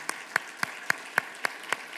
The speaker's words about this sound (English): So why don't you just go ahead? Let's express it to clap. Go ahead.